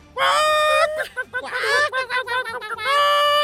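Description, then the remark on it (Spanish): A person imitates a hen's cackle after laying an egg, with loud, strained squawking calls: a long held note, a burst of rapid choppy clucks, then another drawn-out squawk. “Es como las gallinas, después de que ponen el huevo, cantan de esa manera.”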